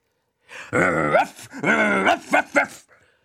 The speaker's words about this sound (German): Ist denn das Hundeviech immer noch da?